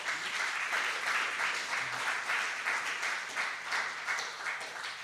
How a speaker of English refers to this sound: Uh, let's give our dads a big round of applause.